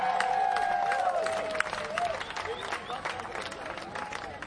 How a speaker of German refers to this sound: Applaus